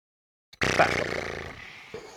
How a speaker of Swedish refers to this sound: Så låter hästen, ja. Men den kan inte andas genom munnen.